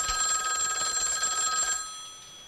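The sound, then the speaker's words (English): An old-fashioned telephone bell rings in a continuous metallic trill for nearly two seconds, then stops and fades out. It's fairly loud, with no voices. “And she says, I don't know how to do that and the phone rings.”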